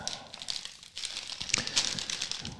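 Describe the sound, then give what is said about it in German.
A 56-gram chip bag crinkles in a steady rustle, with sharper crackling bursts toward the middle and end as it is handled; no one speaks. “Was kannst du jetzt so zum Inhalt der Tüte dann noch verraten?”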